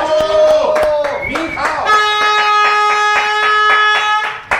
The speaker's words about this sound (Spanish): Ay, aplausos a...